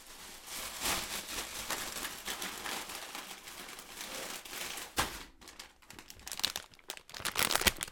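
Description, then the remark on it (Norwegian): Continuous crinkling of a plastic bag of Rema 1000 crunchy corn snacks with chocolate being handled, with sharp crackles and a brief tearing rustle near the end as it is pulled open. “kan ikke du finne fram eh, sprøen, som er det vi skal smake?”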